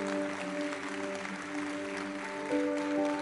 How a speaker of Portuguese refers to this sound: Aplauda o Senhor, glorifique o nome dele.